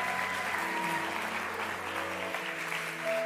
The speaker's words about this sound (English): Keep clapping for hope. Huh? Keep clapping for hope.